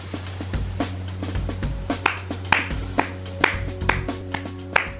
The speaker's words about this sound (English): Doing it again, opening the show with a round of applause, but it's not for you this time,